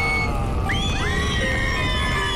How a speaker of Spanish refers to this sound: Los títeres corrían envueltos en llamas gritando de dolor al ser quemados en vida.